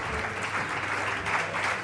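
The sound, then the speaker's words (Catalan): Dense, steady applause from a large crowd for eight companies from the Camp de Tarragona, many hands clapping at once in a continuous wash of sound, loud, with a faint murmur of voices underneath. “Aplaudiments, aplaudiments per les vuit companyies del Camp de Tarragona que s'han fet seva l'olla barrejada”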